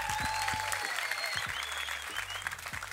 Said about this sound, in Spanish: Fuerte aplauso para todos campeones, loco. Alta batalla están dando, ¿eh?